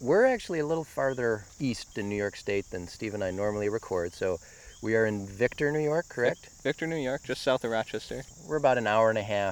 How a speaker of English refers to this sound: where there's a road, um, and it sort of adjoins another cattle pasture and foraging ground for, yeah. I mean, for that, a farm basically with more hayfields. And people can hear the crickets calling.